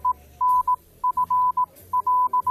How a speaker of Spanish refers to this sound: bueno, tu Morse es como el chino, tiene varias interpretaciones.